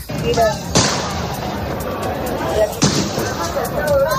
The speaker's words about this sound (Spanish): es un vehículo blindado de la policía derribando la puerta del campus donde cientos de personas llevaban acampadas desde el pasado miércoles